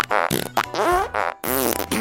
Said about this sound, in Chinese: 奶奶老是在放屁